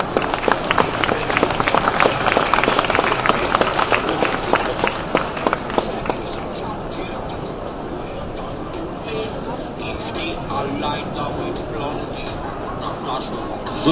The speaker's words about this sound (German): Herzlich willkommen und einen Applaus.